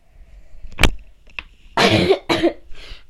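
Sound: coughing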